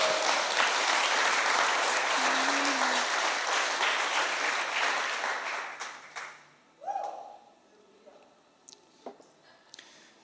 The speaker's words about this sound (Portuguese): Vamos dar uma salva de palmas?